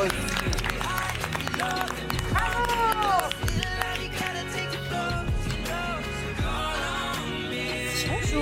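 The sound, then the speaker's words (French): Sustained studio audience applause welcoming two guests' mothers onto the set, dense and steady for several seconds, with music and cheering voices mixed in underneath. “Bah on va les applaudir.”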